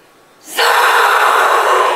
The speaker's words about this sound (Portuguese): Você ouve isso, a hora que você entrou lá. E os caras ficam assoprando isso. Esse é como se fosse um apito cerimonial para invocar o espírito de liderança, o espírito de força que tem dentro de cada um de nós.